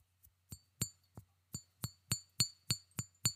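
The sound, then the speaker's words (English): A glass Old Spice bottle with a red plastic stopper is tapped repeatedly with a fingernail, about a dozen quick, bright clinks in a steady rhythm, each with a short ringing tone, with no voices. “I'm just I'm just thumping it with my fingernail, and it does have that beautiful red plastic stopper.”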